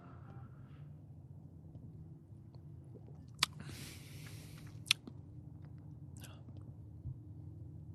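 A quiet sip of honey whiskey: a brief airy slurp bracketed by two sharp lip or glass clicks, over a low steady hum with no talking.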